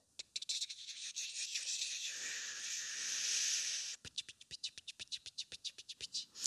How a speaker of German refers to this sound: Das ist der Regen, der üblicherweise immer dienstags da ist, wenn wir unseren Einsatz in Kaufbeuren haben, manchmal auch in Marktoberdorf.